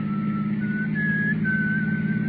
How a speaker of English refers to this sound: Then I heard him whistle. And I knew who it was. The man called … … owl whistling while he worked.